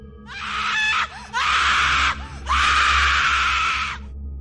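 A shrill, inhuman wailing scream in three loud bursts, two short cries followed by a long sustained howl, piercing like a child's crying with nothing else underneath.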